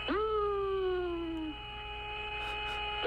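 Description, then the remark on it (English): An eerie, whistling tone swoops up and then glides slowly downward, sustained like old science-fiction space music over a steady low hum, with no talking. “That music even sounds outer spacey, doesn't it? You hear that? That whistling sound?”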